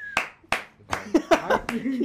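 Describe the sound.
Several sharp hand claps ring out at an uneven pace, two spaced ones first, then a quicker cluster mixed with excited voices and what sounds like laughter.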